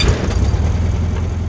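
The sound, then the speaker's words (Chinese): An old truck engine, starting reluctantly as a boot presses the accelerator, rumbles with a deep, steady, uneven low throb, loud and continuous for the whole moment, with no voices over it. “不过，他能听见他的靴子踩那油门，那老卡车终于还是屈服了。”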